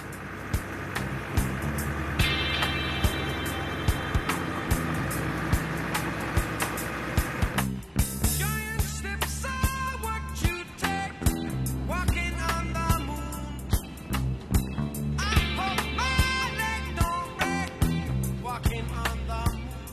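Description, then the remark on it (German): Steady low engine rumble and road noise from inside a moving car driving to the volcano museum on the east side of an island, continuous throughout, with intermittent rattles and clicks in the second half and no talking. “Wir fahren jetzt zum Vulkanmuseum auf der Ostseite der Insel.”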